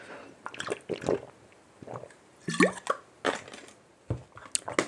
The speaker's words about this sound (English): That's water right there for you.